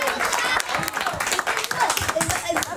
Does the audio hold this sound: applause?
yes